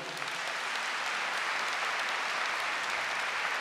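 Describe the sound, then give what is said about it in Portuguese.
Sustained audience applause in honour of Padre Léo, a dense steady patter of many hands clapping at an even, fairly loud level throughout, with no voices standing out. “Pode aplaudir esse homem.”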